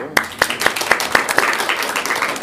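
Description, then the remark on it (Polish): Applause from a small audience for a guest at the end of a conversation, starting with a few distinct, evenly spaced claps that quickly blur into a dense, continuous patter of many hands clapping. “E, szanowni Państwo, no ja bardzo dziękuję naszemu gościowi. Brawo.”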